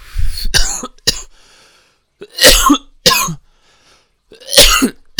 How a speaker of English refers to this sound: Was that rude? Was that rude for me coughing in your ear like that?